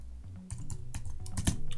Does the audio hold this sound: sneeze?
no